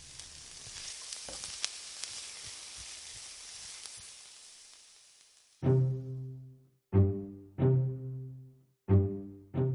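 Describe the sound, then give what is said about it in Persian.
Steady crackling sizzle of falafel frying in hot oil and turning golden, with sharp pops, fading out after about five seconds; then four loud, repeated musical tones ring out in a regular rhythm. “همین فلافلامون در واقع به واسطه گرما و حرارت روغن بیرونی و بخار مواد داخلش داره پخته میشه خیلی خوب فلافلا کم کم دارن سرخ میشن طلایی میشن بله میرخصن توی این روغنه”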